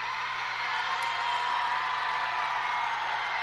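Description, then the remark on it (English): Fans small in stature cheer late at a basketball game as a player hits a second free throw, in a steady, dense roar of many voices that holds at an even, fairly loud level throughout, with no single voice standing out. “There's the late onset cheering by the diminutive fans today.”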